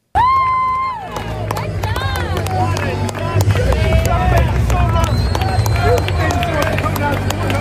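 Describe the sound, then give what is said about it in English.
A crowd gives a wrestler a standing ovation, loud sustained cheering and applause with whistles and scattered shouting voices, holding at a steady, dense level for several seconds after a brief opening tone. “I heard he got a standing ovation too over here.”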